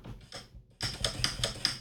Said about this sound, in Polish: I jeśli mamy ustawione w, w ustawieniach, o których za moment, tak, że ten suwak ma być wyciszany wszędzie, no to naciśnięcie tego przycisku spowoduje, że ten suwak faktycznie nam zjedzie na dół.